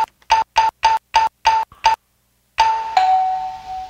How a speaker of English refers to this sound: You got to put some sort of limiter on that doorbell, you know, where you only can ring it like five times.